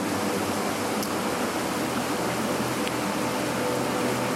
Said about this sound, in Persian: آره یه جایی که بغلم رودخونه است و در کنار رقص نور رودخونه ای داریم رقص رودون رودخانه ای